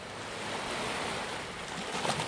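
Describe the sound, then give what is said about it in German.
Gentle waves wash softly and steadily in a secluded tropical lagoon with clear water, a continuous hiss of water with no distinct breaks or crashes. The sound is quiet, with no voices. “Du tauchst ein in dieses herrlich glasklar schimmernde Wasser, dieser einsamen tropischen Lagune.”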